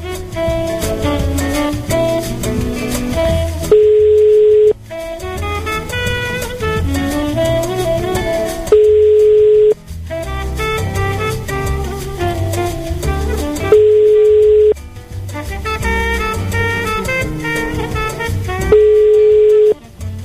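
A telephone ringing tone sounds four times, each a steady tone about a second long, spaced roughly five seconds apart, with busy music-like sound filling the gaps between rings, as a call placed to a man's partner goes to voicemail.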